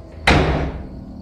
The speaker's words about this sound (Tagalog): Napaatras kami ni Dante nang biglang humampas ang pinto ng truck mula sa loob.